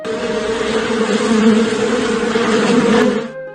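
insect, bees buzzing

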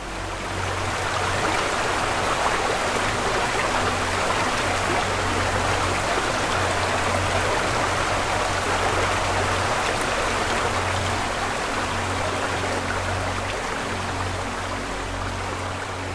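nature, waterfall

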